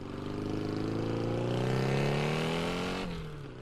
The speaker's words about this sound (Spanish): A ah, Chihuahua es una moto carabela de los ochentas, no oigo el agua. O está fuera de borda